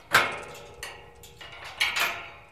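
Sharp metallic clanks and rattles, a loud clack followed by softer scraping knocks and then two more bright clatters as a biologist unlocks and opens two metal gates secured with thick locks, at a fenced former military site owned by the Heinz Sielmann Foundation on the western Berlin city border.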